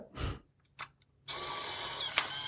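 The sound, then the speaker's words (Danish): An old camera snaps a photo with a sharp mechanical burst, followed by a couple of faint clicks, then a steady buzzing motor whir as the print is ejected, running to the end. “Ej, det er lang tid siden, jeg har set sådan en gammel kamera der.”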